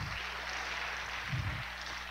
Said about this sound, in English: And yeah, give him an applause.